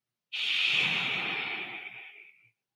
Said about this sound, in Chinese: 是个类似风声的感觉。